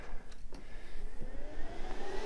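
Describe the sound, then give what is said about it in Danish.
The cooling fan of a device that has just been switched on, lying upside down on the floor, spins up with a steady airy whoosh and a whine that slowly climbs in pitch, fairly loud, with a couple of faint clicks and no talking. “ja, ja, det er sådan set køleren, der, der lige tænder op”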